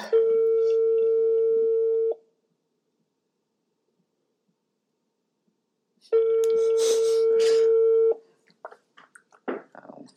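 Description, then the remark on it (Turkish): A phone ringback tone sounds twice, each steady electronic burst lasting about two seconds with a long silent gap between, followed by faint rustling and clicking noises. “Evet, tamam arıyoruz.”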